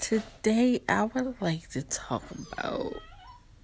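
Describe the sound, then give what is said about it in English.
A dog whimpers faintly in the background, a thin high whine that rises near the end while a woman talks over it in the foreground. “Y'all gotta excuse my dog in the background.”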